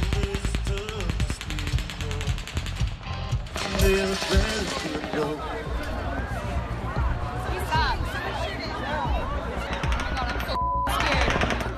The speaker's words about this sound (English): Bullets rain down on the 22,000 concert goers packed into the open air venue.